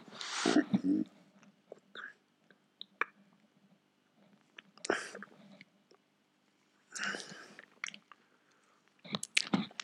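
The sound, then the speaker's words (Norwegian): Sips of coffee: several short slurping and swallowing bursts spaced a few seconds apart, with small mouth clicks and quiet pauses in between. “nå hørte du meg ikke, for drikke drikker kaffe med vågen”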